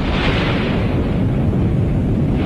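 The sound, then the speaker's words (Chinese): An atomic bomb explosion sound effect, for the first atomic bomb dropped by the US military on Hiroshima, Japan, on August 6: a massive, sustained roar, a dense low rumble with a broad, noisy wash that stays loud and steady for a couple of seconds without any voices. “那么，在这个背景下，八月六日，美军在日本的广岛投掷了第一颗原子弹。”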